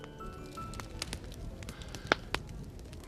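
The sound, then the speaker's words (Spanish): A fire crackles in a large fireplace in an adjoining room: a soft, steady roar of flames broken by scattered sharp pops and snaps, with a couple of louder cracks toward the end. “Y entonces me invitaron a pasar a una sala contigua junto a una gran chimenea donde me iban a explicar en qué consistían esos poderes.”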